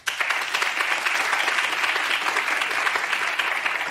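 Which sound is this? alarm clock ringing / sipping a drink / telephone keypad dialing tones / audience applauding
audience applauding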